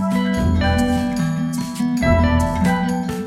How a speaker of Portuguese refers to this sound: A música que você está ouvindo é composta pelo ….